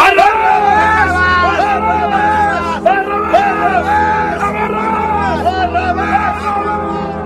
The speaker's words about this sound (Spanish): Caifás y los saduceos se dieron cuenta del grave riesgo que suponía aquel silencio, y adelantándose hacia Pilato, gritaron con fuerza.